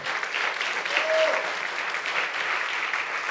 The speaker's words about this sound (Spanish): Dele fuerte ese aplauso al Señor.